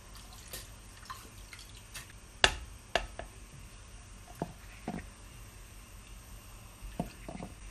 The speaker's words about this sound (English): Okay, so I'm just going to pop the, uh, the honey and the rind in now I'm just going to add the, uh, the gin.